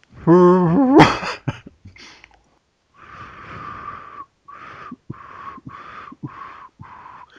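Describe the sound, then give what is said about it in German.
Someone tries to whistle a tune but produces mostly breathy air: a run of airy, hissing notes with only a faint pitch, broken into short segments. A brief voiced, rising hum comes first. “tu ich nicht, versuchst zu pfeifen.”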